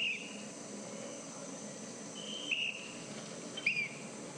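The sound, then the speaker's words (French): Short, shrill whistle blasts, three brief bursts spread across a few seconds, blown at a cycling race to warn of approaching women riders, over a steady hum of outdoor ambience and faint chirping. “elle s'écoute siffler hein, pour avertir l'arrivée des, des coureuses.”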